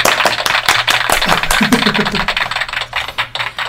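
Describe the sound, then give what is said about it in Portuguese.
Quick, sharp hand claps in a steady, rapid stream, crisp and fairly loud, with a faint murmur underneath and no clear speech. “Bate palma aí também, você que tá ouvindo.”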